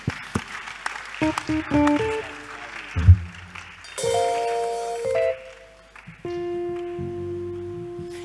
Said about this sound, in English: You can clap your hands to Jesus one more time.